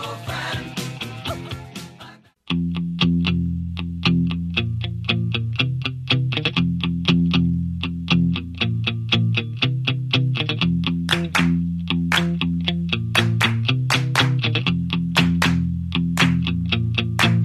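A late-1970s rock band song plays loudly, opening with a brief guitar intro before the full band kicks in with a steady, driving drumbeat, bass and crunchy, effects-laden electric guitars.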